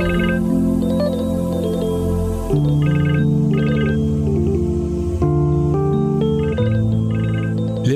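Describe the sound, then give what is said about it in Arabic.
A phone rings with a melodic electronic ringtone that plays steadily and fairly loudly, a repeating tune of bright synth tones over a sustained low backing, with no one speaking. “مترد؟ خليه يرن خايف ترد؟”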